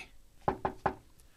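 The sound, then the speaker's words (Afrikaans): Three light knocks in quick, even succession on the inside of a chest, moderately soft, with a hollow, slightly muffled quality and quiet background before and after. “Toe hoor sy 'n ligte klop aan die binnekant van die kus.”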